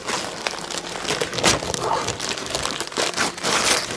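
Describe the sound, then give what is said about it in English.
Continuous paper crinkling and rustling as a gift-wrapped comic book from a stocking is torn open, with bursts of louder crackling scattered through about four seconds and no voices. “I'm over here wondering what do you have gift wrapped in that stocking? Well, as you heard in the singing intro today, six madmen maddening, which means we're unwrapping.”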